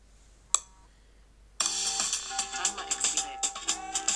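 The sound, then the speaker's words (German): A smartphone timer alarm starts abruptly after a single short click, then plays a bright, pulsing electronic melody that continues loud until the end. “Ja, das Signal verschwindet von selber und ich muss nichts machen.”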